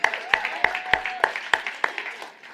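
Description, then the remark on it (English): An audience claps together in a steady, even rhythm, sharp beats landing about three per second over a bed of scattered applause, the unison beat fading out toward the end. “Come on, I'll, I'll clap with you on that one.”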